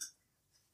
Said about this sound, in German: Genau, und ähm, wenn das ja übrigens so äh, knuspert, das ist die Katze